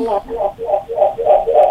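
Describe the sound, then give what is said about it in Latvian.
A muffled, narrow-band voice over a telephone line, with a hollow echo that repeats the sound in a steady series of smeared bursts, like a caller's radio feeding back down the line. “Ū, kas par atbalsi?”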